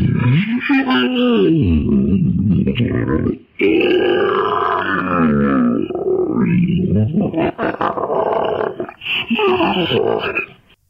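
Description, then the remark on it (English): A recreation of deep, guttural grunting and drawn-out moaning from a large animal, loud, rising and falling in long wavering calls with brief pauses between bursts. “So as far as I'm concerned, she has verified what you are about to hear now is what she actually heard and believes may be a Bigfoot.”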